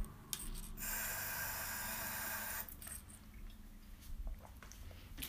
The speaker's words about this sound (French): Je bois une petite goutte d'eau, excusez-moi.